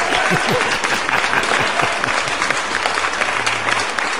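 A crowd claps steadily for about four seconds, a dense, continuous patter of many hands at an even loudness, with a few brief voice fragments mixed underneath.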